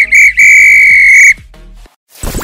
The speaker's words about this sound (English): If this were a real bit of extra time, this is when the ref blew the whistle because it's finished.